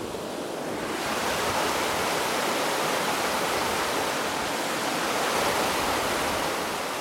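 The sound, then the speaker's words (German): The young Inn river in the Upper Engadine roars steadily, a dense, unbroken hiss of churning mountain water that swells slightly after the first second and holds constant, with no voices. “Lieber junger Inn, auch hier im Oberengadin, wo du vorlaut bist und ungestüm”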